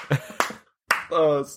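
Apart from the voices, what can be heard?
hand clapping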